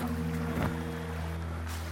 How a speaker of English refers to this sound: I'm thinking that it would be somewhere where you can hear it. You can hear the falls and hear the water